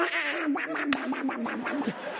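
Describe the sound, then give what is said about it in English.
A person imitates Donald Duck in a raspy, sputtering cartoon-duck voice: a loud stream of garbled quacking syllables that runs on for about two seconds. “What is greatness? He says, to talk like Donald Duck.”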